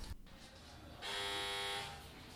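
A garden gate doorbell, rung by visitors who arrived on foot, sounds as one loud, steady electric buzz lasting just under a second, harsh and rich in overtones, with quiet background before and after and no talking.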